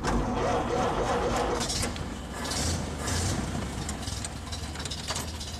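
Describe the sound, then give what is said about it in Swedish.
A taxi's engine idles steadily as it pulls up at a cabin, a low continuous rumble with faint mechanical rattling and ticking that stays at an even loudness throughout. “När vi ätit och snyggat till oss körde en taxi fram till stugan.”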